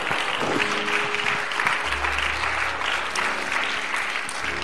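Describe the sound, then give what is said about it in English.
An audience claps steadily in a dense, continuous wave of applause, giving the Lord a hand clap of thanksgiving, with a low organ-like hum entering partway through under the clapping. “Can we give the Lord a hand clap of thanksgiving today?”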